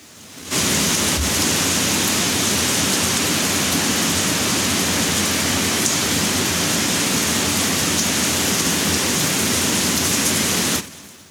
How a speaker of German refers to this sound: ich habe gehört, Regengeräusche sollen sehr entspannend wirken. Deswegen hier kommt ein bisschen Regen für euch da draußen.